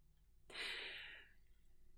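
A single deep breath drawn in through the nose, breathing in the aroma of Cypress essential oil, a soft airy rush lasting under a second that fades out, with no talking.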